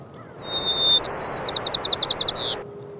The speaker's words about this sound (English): All white crowned sparrow songs start with a whistle, so the whistle kind of alerts other birds that, okay, here I am, I'm singing. Then they have complex notes, and that's kind of like an individual flourish, almost like a signature.